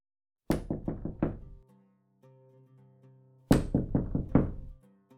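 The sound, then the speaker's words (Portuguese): Two bursts of firm, rapid knocking on a house door by the story character Montague, each about five quick raps, separated by a short pause filled with a faint, low tonal hum. “E poucos instantes após, Montague já estava lá em sua porta.”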